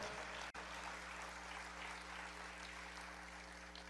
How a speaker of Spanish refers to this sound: Dale un aplauso al Señor, Dios es bueno.